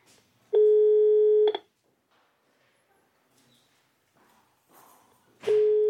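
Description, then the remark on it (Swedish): Telephone dialing tones for a monitored call made after a detention hearing: a steady, loud electronic beep lasting about a second, then a quiet pause with faint background noise before a second tone begins near the end. “Jag fick ringa ett avlyssnat samtal efter häktningsförhandlingen för att informera mamma och pappa och be dem frånvaroanmäla mig i skolan tills vidare.”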